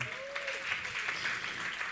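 An audience claps steadily, a dense spread of many hands applauding at moderate volume, with a faint voice briefly audible beneath the clapping. The applause is for the wedding season.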